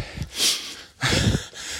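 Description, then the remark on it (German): Heavy panting while walking uphill on a mountain: two loud, breathy inhale-exhale bursts about half a second apart, airy and rough, with no talking, like someone out of breath from exertion. “ihr hört es am Schnaufen, das ist ein Berg.”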